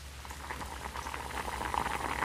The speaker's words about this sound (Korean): 쿵쾅거리는 제 심장 소리가 들릴까봐 걱정이 되기도 했지만 다행히 밤새 쏟아지는 빗소리만 방 안을 가득 채웠지요.